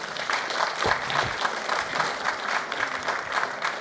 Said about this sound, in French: Eh ben, écoutez, merci à nos panélistes. Euh, on peut les applaudir. Merci à eux.